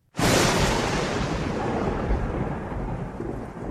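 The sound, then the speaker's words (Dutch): A sudden, loud crack of thunder from lightning striking about 20 to 25 meters away bursts in and rolls into a heavy, rumbling roar that sustains for several seconds, with no voices present. “Laat zij mij zien hoe bliksem op 20 meter van haar insloeg.”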